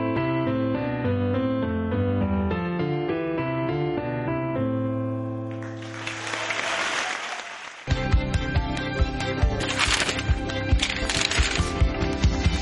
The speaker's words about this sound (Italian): Insomma, l'applauso in coda al live, sommato allo stacco